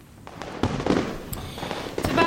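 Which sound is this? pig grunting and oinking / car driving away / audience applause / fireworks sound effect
fireworks sound effect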